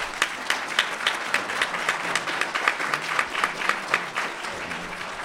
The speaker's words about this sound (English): Let's give George Gilder another round of applause.